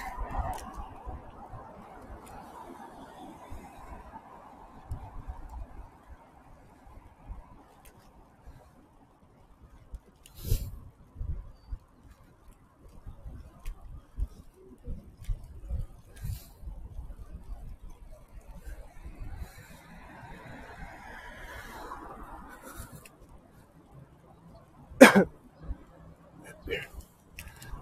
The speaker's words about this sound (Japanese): 車がうるさいですね。今橋の上を走ってるんですけど、車は結構スピードを出すので、